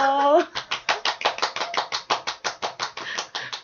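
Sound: clapping sound effect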